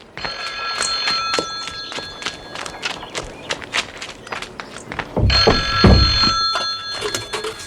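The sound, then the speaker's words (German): A telephone bell rings persistently with a bright, metallic trill, accompanied by rapid clattering, hoof-like taps and a brief low rumble partway through, loud throughout. “Ach, das Telefon. Wieso geht Tante Mathilda nicht dran?”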